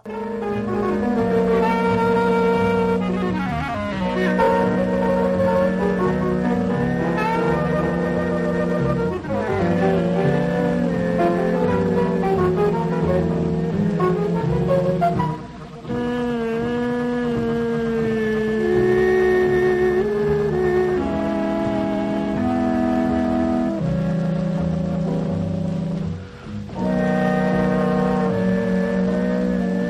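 A jazz recording plays steadily with no talking: sustained, warm horn-like chords and melody lines hold at an even loudness, pausing only briefly twice between phrases.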